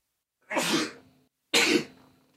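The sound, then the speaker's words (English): Two sharp sneezes about a second apart, each a sudden breathy burst that trails off quickly, loud with no talking around them. “Bless you again.”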